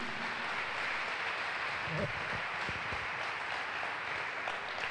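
A church audience applauds Jesus after a prayer, many hands clapping together in a dense, sustained wash of sound across the whole stretch, with a few faint voices mixed in beneath it.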